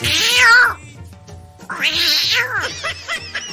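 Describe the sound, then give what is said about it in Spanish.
A cat meows loudly in two drawn-out, wavering cries, the first one long and whiny, the second starting after a short pause and trailing off into shorter, strained yowls. No one speaks. “Hablando de gatos, ¿quién se quiere quedar con el Gremlin?”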